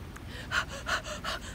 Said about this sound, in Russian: И начни дышать очень глубоко